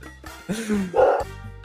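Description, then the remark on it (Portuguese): A dog barks twice in quick succession, short and fairly loud, with no one speaking. “Ô, oh, filha da puta, esse cachorro. Pera aí.”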